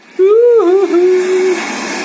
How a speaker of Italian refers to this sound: il rumore del mare immancabile che accompagna questa tua bellissima barzelletta.